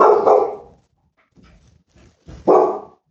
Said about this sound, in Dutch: Excuus, de hond begint ineens heel hard te blaffen. Oké, hopelijk ben je daar niet veel van geschrokken. Ik schrok er zelf namelijk wel van.